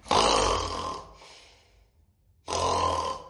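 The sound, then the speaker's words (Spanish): A person makes two loud, rasping fake snores from deep in the chest, a long one, then a short pause before a second, with no talking. “No importa que no estén dormidas, ustedes ronquen, ustedes ah, emanen un, sonido que salga así como del pecho.”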